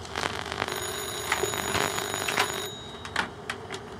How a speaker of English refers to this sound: I didn't realize the landline was still hooked up.